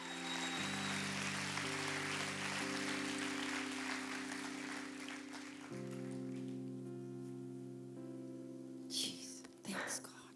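An audience claps over sustained, droning keyboard chords. The applause is dense at first, then gradually fades away while the music holds, with a couple of brief bumps near the end.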